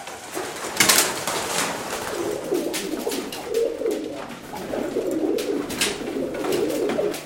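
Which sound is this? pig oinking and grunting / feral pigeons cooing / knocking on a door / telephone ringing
feral pigeons cooing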